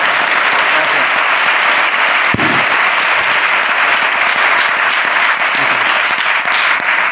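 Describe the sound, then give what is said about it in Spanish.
Sustained applause from a studio audience for a young man, a dense, steady wash of many hands clapping at once for several seconds, loud, with no voices standing out. “Un aplauso para este muchacho, muy bien, ¿eh?”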